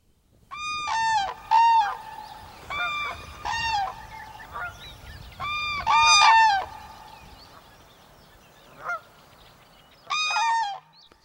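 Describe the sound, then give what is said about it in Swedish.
Loud, trumpeting calls of cranes ring out in repeated bursts, often two birds overlapping in a rolling duet, with short pauses between phrases and no talking. “Veckans fågel, tranan.”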